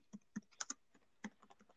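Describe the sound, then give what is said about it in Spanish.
A short run of crisp key taps in an uneven rhythm, about a dozen clicks with brief pauses, as someone types a WhatsApp message. No one speaks. “Le mando un WhatsApp”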